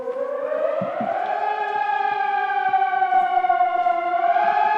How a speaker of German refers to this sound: Mit dem Sirenengeheul soll die Bevölkerung im Ernstfall auf eine Gefahr hingewiesen werden.